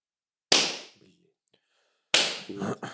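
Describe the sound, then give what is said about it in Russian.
Two loud, sharp hand slaps ring out about a second and a half apart, each decaying quickly; a brief voice sound follows the second slap. “Шлепни ее, да, шлепни хорошенько, дай ей.”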